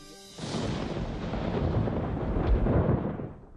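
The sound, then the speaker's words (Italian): A deep, rolling rumble of thunder from a threatening storm on the evening of a royal wedding at Versailles swells in after a brief quiet moment and keeps growling steadily for a few seconds, heavy in the low end. “Nonostante il minaccioso temporale scoppiato la sera del matrimonio, nei saloni della reggia i festeggiamenti nuziali continuano all'insegna del fasto più sfrenato.”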